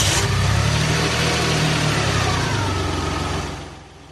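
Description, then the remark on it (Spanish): A neighbour's car engine roars to life and revs hard with a deep, throaty rumble, holding loud for a few seconds before the revs drop back toward a quieter idle. “¿Lo arrancamos?”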